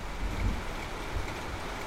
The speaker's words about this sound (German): Erbarmungslos prasselte das Wasser auf mich nieder.